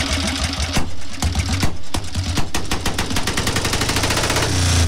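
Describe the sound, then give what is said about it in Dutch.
A vintage factory racing motorcycle engine revs hard with flames shooting out, a loud, rapid staccato of firing pulses with a deep rumble underneath, its beat quickening as the throttle opens. No voices. “Dit is wel een heel mooi motorgeluid. Het is een racer, echt een fabrieksracer.”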